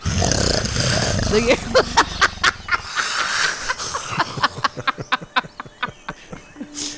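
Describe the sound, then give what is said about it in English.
A voice imitates loud, guttural snoring like a gorilla, the snoring of the character Poe, starting with a long rough roar-like rumble, then breaking into a rapid series of choppy snorts and rattling breaths, forceful. “It Goes back to snoring like a gorilla.”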